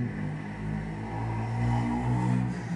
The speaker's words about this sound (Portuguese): Moto de novo.